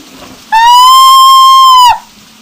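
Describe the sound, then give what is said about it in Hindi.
A loud, steady, shrill whistle holds one bright pitch for about a second and a half, then cuts off abruptly, leaving faint background noise, on a stormy night with strong wind and heavy rain. “हे भगवान दीदी सीटी की आवाज जैसा दीदी ने कहा था और किसी लोहे की चीज के गिरने की आवाज”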